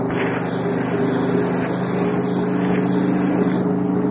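A car engine drones steadily throughout, a low continuous hum with rushing wind and road noise layered over it, fairly loud, with no talking.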